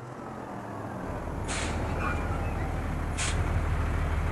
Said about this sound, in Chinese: 第二天一早，一辆辆的卡车就开进了工地。运来了建造房子所需要的材料：砖、木板、瓦片、水泥、沙子。